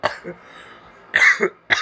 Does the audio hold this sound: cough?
yes